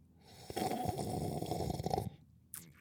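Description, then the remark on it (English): A long, loud slurp of hot afternoon tea from a cup, lasting about a second and a half, followed by a short pause and a quick breathy exhale. “Tea, bitch.”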